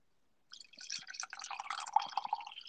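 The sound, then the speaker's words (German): A thin stream of dry 2018 wine from the Böhl Gellertberg vineyard, 13.5% alcohol, trickles into a glass, a quiet, steady splashing that starts abruptly and keeps gurgling for about two seconds, with no voices. “Ich, ich lasse es mal hier rein. Schließen. Mal sehen, ich hoffe, dass man es ein bisschen hört.”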